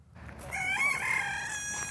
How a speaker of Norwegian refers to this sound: En hane ønsker velkommen på tunet.